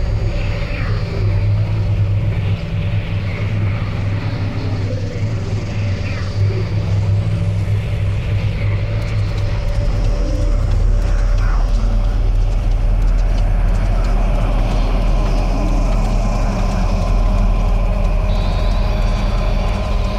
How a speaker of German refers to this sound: And there's more oh, explosions right now. Hold on, people are running. Hold, hold on. on. just a moment. We've got an explosion inside. The building's exploding right now. You got people running up the street.